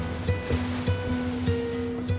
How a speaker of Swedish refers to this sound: Här, nere i hamnen, ligger lyxjotter för tiotals miljoner och guppar i det turkosa vattnet.